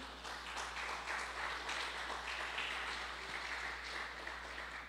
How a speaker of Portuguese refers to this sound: Dá um aplauso ao Senhor Jesus aí.